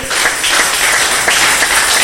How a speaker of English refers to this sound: Do your part, and God will do the rest. Why don't you clap for the Lamb of God?